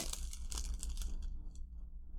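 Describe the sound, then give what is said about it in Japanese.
Crinkly rustling of plastic packaging as the package of a 3DS Mystery Dungeon video game is torn and opened, a quick run of scratchy bursts that quiets down partway through, leaving a low hum with no talking. “ちょっとガサガサしますけど、ちょっと開けてます。”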